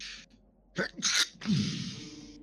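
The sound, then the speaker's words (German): A single loud sneeze: a short sharp intake of breath, then an explosive burst trailing into a hissing exhale. No one speaks. “Ja, vielleicht. Gesundheit.”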